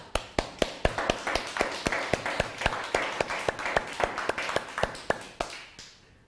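An audience claps together in a steady, fast rhythm, sharp unison claps about four per second over a softer wash of scattered clapping, lasting several seconds before trailing off. No one speaks.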